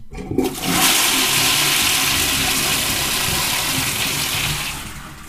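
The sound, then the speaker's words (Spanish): A flush of a Porongo-brand pull-chain toilet chain: a short clack, then a loud, steady rush of water that holds for several seconds before tapering off near the end. No one speaks. “Bueno, muchos me preguntaron en mis historias qué cadena de baño es la que uso y bueno, este es el de la marca Porongo.”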